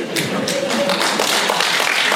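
A crowd applauds steadily in a large hall, many hands clapping together in a dense, continuous patter, fairly loud and filling the whole stretch, with faint voices mixed underneath.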